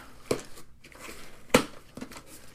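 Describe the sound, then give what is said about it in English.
Paper crinkling and rustling as a packed box of about eight ordered pencils is opened, with a few sharp crackly bursts among softer shuffling, no voices. “you know, so uh, I'm opening the box.”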